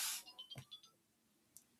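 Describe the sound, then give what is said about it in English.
A cheerful alarm chime: a brief hissy burst, then a quick run of bright, high-pitched beeping notes that fade out within a second, faint and without any talking. “that is definitely inappropriately cheerful alarm sound.”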